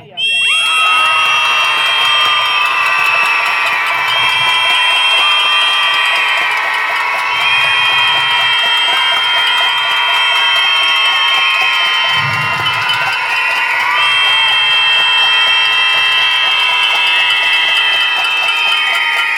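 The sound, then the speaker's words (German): A large crowd at a protest against femicide screams and shouts continuously for about twenty seconds, a loud, sustained roar of many voices with whistles and cheers mixed in, dense throughout. “Bitte zeigt jetzt noch einmal ordentlich, wie laut wir sein können und wie laut wir auch bleiben.”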